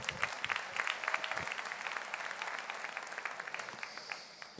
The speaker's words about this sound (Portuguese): Um aplauso para ela, né?